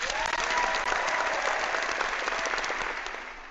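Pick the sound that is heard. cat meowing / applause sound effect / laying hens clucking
applause sound effect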